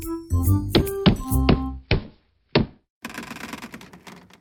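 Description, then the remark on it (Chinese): A series of about six heavy, hollow thumps on a floor, irregularly spaced, with a low booming body, made in a story by a fox knocking its big tail on the floor at night. A softer rustling noise follows once the thumping stops. “他想出了一个主意，于是就用大尾巴在地板上咚咚的敲起来。”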